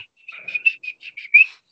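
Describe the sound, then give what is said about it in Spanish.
A person imitates the whistle footballer Verón made during a football training session: a rapid, choppy string of about eight short, high notes in a row, like a herder's call to drive cattle or horses, with no talking. “más o menos promediando el minuto 18, 19, empiezan, empieza eh, Verón a hacer como una especie de, chiflido, como de arreo de ganado,”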